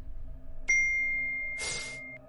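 mobile phone ringing

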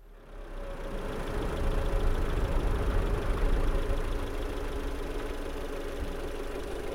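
car engine running

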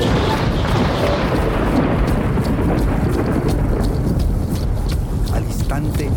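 deafening thunderclap

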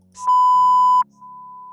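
censor beep sound effect

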